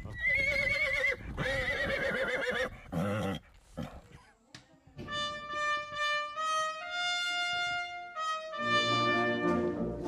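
A horse whinnies loudly in quavering, high-pitched bursts, followed by long, steady tonal calls that shift in pitch, with no one talking.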